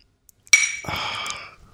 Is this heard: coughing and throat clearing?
no